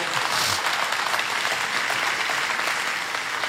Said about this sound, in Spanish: Vamos, si va a aplaudir, apláudale bien al Señor, por favor.